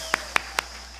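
Audience applause honoring a company's employees at a tribute, heard as just three sharp, evenly spaced claps that stand out clearly over a low steady hum, with no voices.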